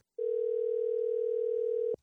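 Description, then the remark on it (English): A steady telephone dial tone, heard while placing a phone call, hums alone for nearly two seconds at even volume, a single unbroken pitch that cuts off abruptly with a faint click. “So I'm gonna get Melanie on the phone.”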